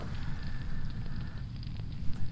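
A crackling campfire burns steadily with a low, rumbling roar, scattered sharp pops and snaps becoming more frequent toward the end. No one speaks.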